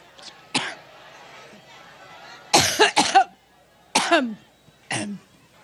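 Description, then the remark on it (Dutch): A person coughs repeatedly, about five or six sharp, close-up coughs in uneven bursts, a couple coming in quick pairs, over a faint murmur of background voices. “Ieder foutje, ieder kuchje wordt genadeloos afgestraft.”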